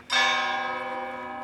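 A church bell strikes once with a bright, clear onset, its rich ringing tone sustaining and slowly fading, loud and resonant with no voices present, rung to signal the end of a funeral service.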